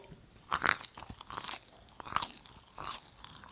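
Crunching and smacking as someone chews hard, crunchy candy, with irregular bursts of crisp bites and wet mouth noises, no talking.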